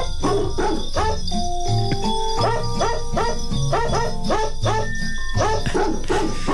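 Dog barks pitched to form the melody of Jingle Bells, a rapid rhythmic string of yelps over a bouncy instrumental backing, loud and continuous with no talking.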